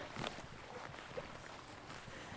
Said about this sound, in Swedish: fin liten bäck.